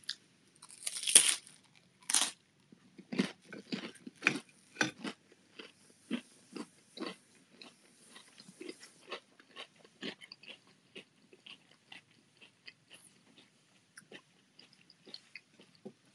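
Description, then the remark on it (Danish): Loud crunching of crispbread, starting with a few sharp bites and settling into steady, irregular chewing crunches that gradually soften over about sixteen seconds, with no talking. “Nu tager jeg altså lige knasende blevet knækbrød her. Knasende knækbrød.”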